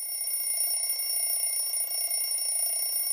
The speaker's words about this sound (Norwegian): På en beryktet konsert i Toronto plasserte han en brannalarm på gulvet som gjorde publikum nesten døvt.